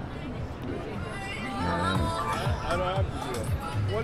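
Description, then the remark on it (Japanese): Dense crowd chatter in Times Square, a street so crowded with pedestrians it is almost a pedestrian zone, many overlapping voices blending into a steady hubbub, with no single voice standing out. “人が多すぎてもう歩行者天国ではないんですがほぼ歩行者天国状態ですそこがど真ん中でしょタイムズスクエアもうすごいね”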